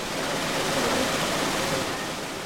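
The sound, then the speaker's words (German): Steady rushing water pours continuously from a salad washing machine at a trade fair, a dense, even splashing hiss with no breaks. No voices are heard. “Dabei lässt er sich unter anderem auch eine Waschmaschine für Salat zeigen.”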